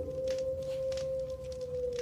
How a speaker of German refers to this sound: als sie so ein, so ein Geräusch in der Ferne hört. Was ein bisschen verdächtig klang nach, nach Wölfen.